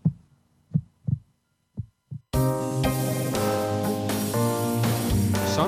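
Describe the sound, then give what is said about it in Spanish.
Deep, muffled heartbeat thumps pulse in pairs, coming a little faster each time, then a loud burst of full music cuts in and carries on to the end. “Sigue con nosotros el ritmo creciente de los latidos del territorio andaluz.”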